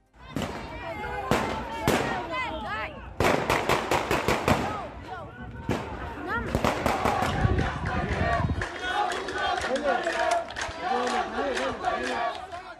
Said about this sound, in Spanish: Por la noche, los disturbios y choques continuaron durante largas horas en el barrio Sheikh en la carretera Barlev, en Isawiya y otros puntos y se escuchaban así.